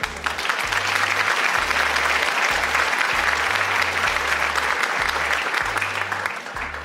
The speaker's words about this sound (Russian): Это аплодисменты. У нас записаны аплодисменты, и на записи будет слышно.